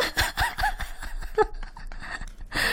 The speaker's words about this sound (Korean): 나 깜짝 놀랐어요. 갑자기 언니가요. 박수를 막 치시더니 생각나셨나 보다 이렇게 생각했거든요.